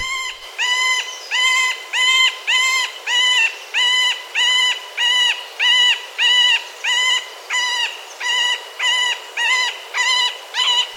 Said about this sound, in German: Aber das ist der Vogel der Woche. Der Mittelspecht.